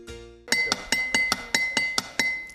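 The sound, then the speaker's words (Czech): A drinking glass is tapped like a small drum as a musical improvisation, in a quick, steady drumming rhythm, about ten bright clinks in a row, each leaving a high ringing tone that carries between strikes. No one speaks. “Takže vážení posluchači, to, co slyšíte, to je hudební improvizace mého dnešního hosta v pořadu cestování, nebo lépe řečeno na cestách”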